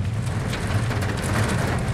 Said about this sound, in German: Die Glut prasselt auf dem Bus nieder und schlägt gegen die Windschutzscheibe.